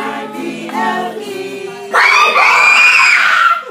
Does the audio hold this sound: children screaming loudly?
yes